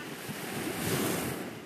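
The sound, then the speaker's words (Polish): Steady rushing wash of waves of the Cretan Sea in Greece, heard in the distance, a broad continuous roar that swells slightly in the middle, heard alone without voices, with some wind buffeting the microphone. “To co słyszycie w oddali to jest szum morza.”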